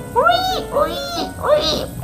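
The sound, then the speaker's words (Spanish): A voice imitates animals shrieking, three rising-and-falling squealing cries in quick succession, fairly loud, with no other sounds around them. “Entonces gruñeron, ah, aullaron, rugieron, chillaron,”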